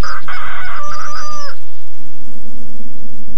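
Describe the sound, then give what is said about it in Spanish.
A rooster crows once, loud, a drawn-out call lasting about a second and a half, then fades into a quiet farmyard background with a low steady hum, on a farm where hens are kept for eggs. “Anticipando la suba astronómica de la materia prima, crían vacas por la leche, gallinas por los huevos y pueden matar a ambos por su carne.”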